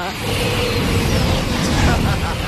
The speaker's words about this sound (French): les trains qui passent comme ça à fond à l'air super dangereux.